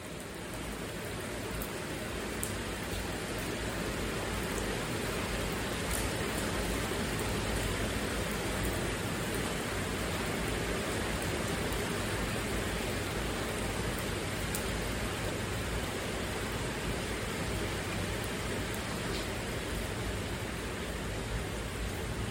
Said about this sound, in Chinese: 你听到了吗？雨慢慢变小了。我其实离露台很近，但是呢，这个雨啊，它感觉离我有一点距离。我想是因为有屋檐的关系吧